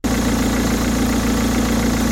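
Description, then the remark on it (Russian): Heavy monster truck engines rumble loudly and steadily as the racers rev up at the start of a winter race, a deep throbbing growl with a rough mechanical texture that holds without pause from start to finish, with no voices. “Но теперь мы можем начать, скомандовал комментатор, и гонщики заревели пуще прежнего.”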